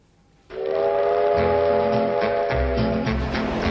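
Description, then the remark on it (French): A loud, sustained train whistle sound effect for the Train de la Culture segment blows with steady harmonic tones, joined after a moment by the rhythmic low rumble and clatter of a rolling train beneath it. No one speaks. “maintenant le train de la culture d'Antoine”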